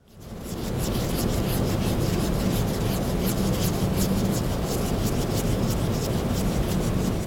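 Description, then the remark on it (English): Steady scratchy rubbing of a cotton swab scrubbed quickly back and forth across a painting's surface to clean it, a continuous rasping texture with rapid strokes and no voices. “That was the sound of using a cotton swab to clean a painting.”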